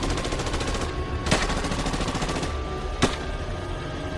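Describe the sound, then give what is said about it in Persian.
Heavy gunfire around a storehouse rattles steadily throughout, growing ever heavier, a dense stream of rapid shots, with two louder, sharper blasts standing out about two seconds apart. No one speaks. “صدای تیراندازی شدید و شدیدتر میشد”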